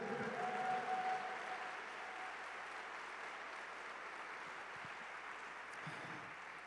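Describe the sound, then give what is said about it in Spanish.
Steady applause from an audience at a church service, clapping loudly for the king: a dense, even wash of clapping that stays at a constant moderate level with no voices standing out. “Vamos, si vas a aplaudir, apláudele fuerte al rey.”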